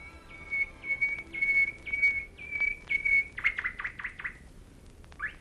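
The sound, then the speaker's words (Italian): A nightingale sings a sweet, clear melody in the evening through an open bedroom window: a run of steady whistled notes, then a quick burst of sweeping trills, fairly soft, with no voices. “Ma una sera, in cui avevano lasciato aperta la finestra della camera dell'imperatore, una melodia dolcissima riempì l'aria e risuonò nella camera del morente.”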